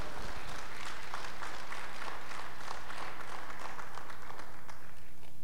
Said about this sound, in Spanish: Si tú lo crees, aplaude al Señor fuerte.